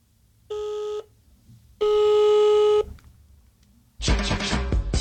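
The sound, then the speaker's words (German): Two steady electronic telephone keypad dialing tones, a short one followed by a longer one, ring out clearly as a number is dialed again, with no talking, then a sudden loud burst of harsh, noisy sound cuts in. “Oh, Entschuldigung, verwählt. Oh, shit. Also, dann nochmal, also, letztes Mal hier.”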